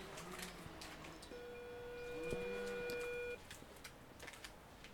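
An apartment door intercom is rung by visitors, giving a single steady electronic buzz, held for about two seconds before cutting off, over a low background hiss with faint clicks.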